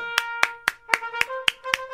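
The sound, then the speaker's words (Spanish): Steady, evenly spaced hand claps, about eight sharp claps in two seconds, ring out over a faint sustained musical tone, with no talking. “Esos babosos que te truenan las manos son iguales a ti, por eso te están aplaudiendo.”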